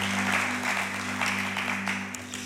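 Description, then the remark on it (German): A crowd claps steadily for the production crew in a dense, continuous wash of applause that stays fairly even in loudness throughout, with a low electrical hum underneath and no voices. “Applaus an Max. Danke Max. Danke Uta.”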